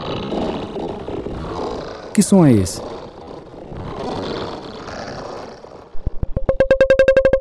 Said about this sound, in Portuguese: Se de um lado temos os efeitos substitutivos, existem também os efeitos sonoros não substitutivos de realidades ou de processos físicos. São os sons criados a partir de meios eletrônicos, como sintetizadores e computadores.